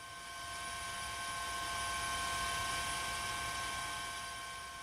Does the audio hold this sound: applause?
no